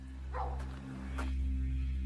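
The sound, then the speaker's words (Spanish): Two faint, muffled barks from a dog abandoned inside a rental house in the Strasburg area, spaced about a second apart, over a steady low electrical hum. “Un perro ha sido abandonado dentro de una de sus casas.”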